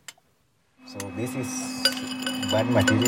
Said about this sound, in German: Der 30-jährige Kenianer ist auf dem Weg zu seinem Arbeitsplatz, dem Fels am Ende des Stollens. Mit Hammer und Meißel schlägt er auf das Gestein ein, achtet auf jedes vielversprechende Schimmern. Noch glänzt da nichts.